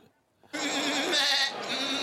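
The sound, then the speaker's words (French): A single goat bleat rings out loud after a brief quiet moment, a sustained wavering cry lasting about a second and a half with a strained, nasal quality, played as an animal sound in a guessing game. “Aïe, aïe, aïe, ah, c'était la chèvre.”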